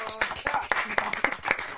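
Applause clapped straight into a microphone at a live concert: about seven sharp, loud claps in a steady, even rhythm, each a bright crack, with a murmur of sound between them.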